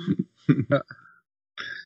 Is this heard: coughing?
yes